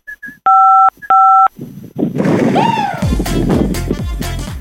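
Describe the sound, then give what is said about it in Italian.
Two steady telephone keypad tones sound in quick succession after a couple of short blips as a key on the phone is pressed to check for an audio problem, then the line fills with loud, harsh noise and rumbling clatter. “Puoi schiacciare un tasto del telefono per capire se è un problema audio?”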